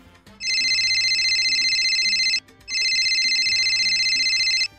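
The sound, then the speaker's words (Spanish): A telephone rings twice, each ring a long, loud electronic trill lasting about two seconds with a short pause between, clear with no voices. “el teléfono.”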